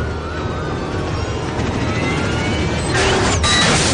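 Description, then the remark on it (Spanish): Sirens of several police patrol cars wail and sweep over a dense roar of speeding engines and road noise on a motorway, the chase sounding continuous, with a louder rushing surge near the end. “Ya en la carretera varios coches patrullas le siguen los talones.”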